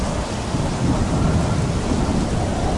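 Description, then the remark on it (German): Heavy rain pours steadily beneath a deep, rolling rumble of thunder, a dense and continuous storm roar that stays loud throughout, with no voices. “hört plötzlich aller Regen auf, aller Sturm hört auf.”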